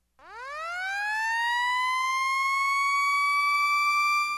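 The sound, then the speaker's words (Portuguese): An electronic warning siren winds up sharply from a low pitch, then holds one loud, steady wailing tone, with no voices. “A Diponto tem a mais completa linha de sistemas de alertas sonoros do Brasil. Sirenes rotativas, digitais e audiovisuais, campainhas de prato e sinalizadores visuais de advertência.”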